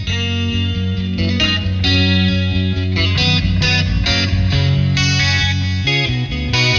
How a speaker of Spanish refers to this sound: Desde esos rasgueos coquetos y discretos de la guitarra, ya te está diciendo, aquí hay una buena canción.